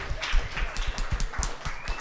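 A short burst of audience applause: many hands clapping in a dense, uneven patter at a steady moderate level throughout, with no one speaking over it.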